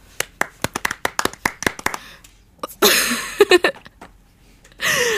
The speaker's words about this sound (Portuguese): E foi a banda portuguesa esta que venceu e por isso inaugurou este festival. Ou seja, grande palmas para eles.